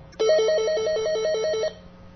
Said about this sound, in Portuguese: É ele outra vez? Atenda. Quem sabe ele não dá uma pista de onde está ligando. Vamos, atenda